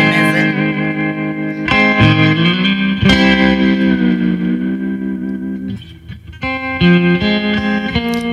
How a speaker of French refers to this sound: Avec un ampli à lampe, on est-tu d'accord que le son a une résonance? Un ordinateur pourra jamais apporter.